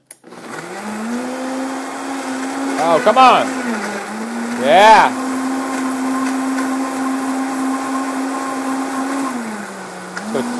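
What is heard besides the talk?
kitchen blender running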